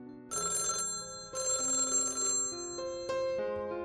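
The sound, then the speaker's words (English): A telephone bell rings loudly in a house in the early morning in two bright, rattling bursts separated by a short pause, its metallic tones lingering and fading afterward. No one speaks. “I was almost ready when the telephone rang.”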